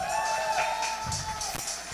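A crowd claps and cheers in a sustained burst, with excited shouts and whoops rising over a steady wash of applause, fairly loud throughout.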